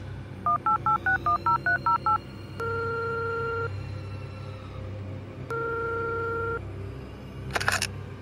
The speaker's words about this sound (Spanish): Faltando menos de media hora para el inicio, Isis tomó su teléfono y marcó el número de Patricia.